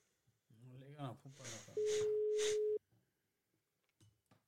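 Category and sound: signal or alarm, telephone ringing tone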